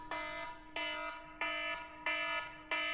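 A loud electronic reminder alarm beeps repeatedly in a steady rhythm, five harsh buzzing tones each lasting about half a second with short gaps between, with no voices.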